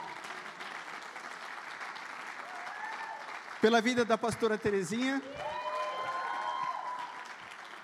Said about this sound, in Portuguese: Aplaude Jesus pela vida dele.